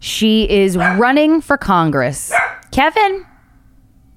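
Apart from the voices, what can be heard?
dog barking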